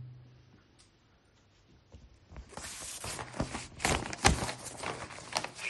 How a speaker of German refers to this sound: knister jetzt ein bisschen mit Papier, damit die auch wissen, die nur hören.